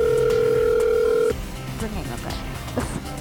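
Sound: telephone ringing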